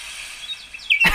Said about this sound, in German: Jetzt mache ich den Regen mal leiser, den Donner lauter. Du kannst das mit so Regeln, Reglern umstellen? Ja, und jetzt kann ich Vögel dazu machen. Pass auf.